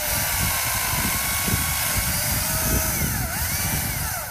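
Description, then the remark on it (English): A loud, steady power saw drones as the bottoms are cut off a line of Christmas tree trunks at the Mesa Christmas Tree Farm in Balmoral, Auckland, its motor pitch rising and dipping through the cut. No one speaks. “As I pull into the parking lot at the Mesa Christmas Tree Farm in Balmoral, owner Mike Fiala is hard at work, chopping the bottom off a line of Christmas trees.”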